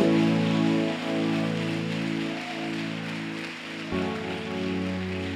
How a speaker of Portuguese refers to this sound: Ah, vale um forte aplauso a Jesus essa noite.